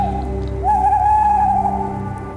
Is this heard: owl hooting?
yes